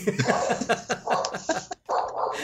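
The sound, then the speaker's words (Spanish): A dog barks in quick, repeated bursts, loud, with a brief pause before the barking resumes. “Ahí está hablando el perro.”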